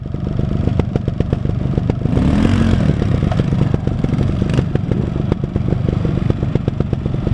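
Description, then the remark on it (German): Trial motorcycle engines rev and rattle in a steady, busy stream of short bursts during motorcycle trial riding, with a louder surge of revving partway through and clattering mechanical noise throughout; the exhausts are quieter than usual. “Man hört die Schädel und Motoren, aber die Töpfe sind leisiger als gewohnt.”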